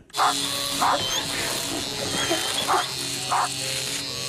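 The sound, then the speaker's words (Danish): A steady electric clipper buzz runs throughout while a dog lets out four short, loud barks at roughly even intervals. “Jeg har lige barberet en labrador, en Sankt Bernhards hund og en lille bernersinde.”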